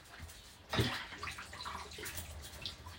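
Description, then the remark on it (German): Washing-up water gurgles and swirls as it drains out of a sink, a sudden splashy onset followed by steady bubbling and trickling, with no talking. “Wasser raus.”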